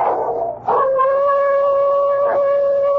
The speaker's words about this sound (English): Chicken-hearted old hound. Yell like that every time I've executed somebody all through the years. And suppose he's yelling for the fool I sent to eternity tonight.